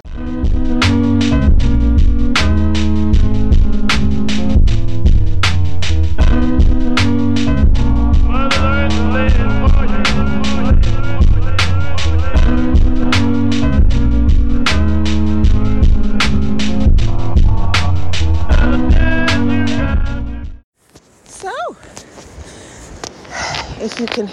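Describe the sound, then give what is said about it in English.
A rhythmic music passage plays for about twenty seconds, then cuts out, leaving a few seconds of the sea's steady, rushing roar at a moderate level. “hear that roar in the background, it is the sea.”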